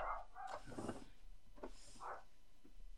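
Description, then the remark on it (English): Dogs bark a few times in quick, irregular bursts, sounding somewhat muffled, with short pauses between the barks and no one talking. “Oh my god, the dogs.”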